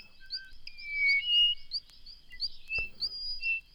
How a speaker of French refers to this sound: et en fond, vous pouvez écouter un enregistrement de 1971 par Jean C. Rocher, Les oiseaux des Antilles.